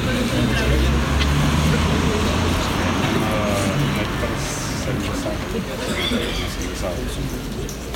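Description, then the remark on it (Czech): Steady low road rumble of street traffic, a car passing on the street, filling the whole stretch at an even loudness while indistinct voices murmur underneath. “Ale když tady nejde auto, tak je docela slyší.”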